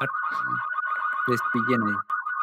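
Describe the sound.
A car alarm blares as one steady, piercing electronic tone that never lets up, while people talk over it in short bursts.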